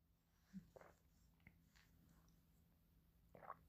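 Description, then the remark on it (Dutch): Quiet sips of tea: a couple of soft slurps with faint swallowing and small mouth noises in between, ending on a sharp little clink, with no talking. “Even een slokje thee.”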